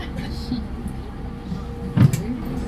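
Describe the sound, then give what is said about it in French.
A car door shuts with a single solid, muffled thump near the end, over a steady low rumble and faint background murmur. “Fermez la porte, c'est mieux.”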